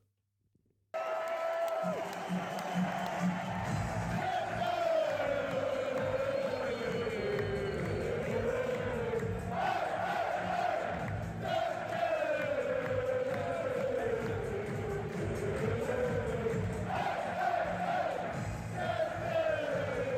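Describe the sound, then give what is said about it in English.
A large crowd at a darts event chants a repetitive song in unison, loud and sustained for the whole stretch, with a rising and falling melodic line and the roar of many voices underneath. “The crowd's going absolutely mental.”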